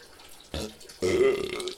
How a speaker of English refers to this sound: I farted too. I don't know if you heard that or not.